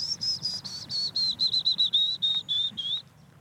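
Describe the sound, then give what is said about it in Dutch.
A willow warbler sings in a wild patch of nature: a bright, high-pitched phrase of about a dozen quick whistled notes that slide gently downward in pitch over three seconds, over a low background rumble, with no talking. “Als je al luistert bijvoorbeeld, dan hoor je al meteen dit. Ja. Dat is een fitus.”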